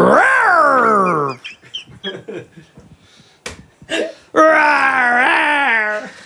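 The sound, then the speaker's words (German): A person gives two loud, drawn-out imitations of a lion's roar, one at the start and one near the end, with a stretch of quieter vocal sounds between them. “Schreie mal wie ein Löwe.”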